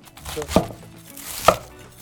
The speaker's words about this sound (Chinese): 我会影响到你切菜，今麦等你切过的菜莫黑白黑了。